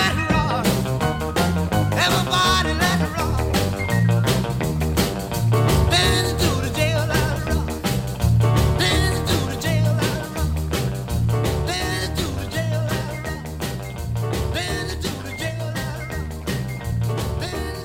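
A loud, upbeat 1950s-style rock and roll song plays continuously, with driving drums, a thumping bass line and bright guitar filling the mix at a steady, energetic tempo.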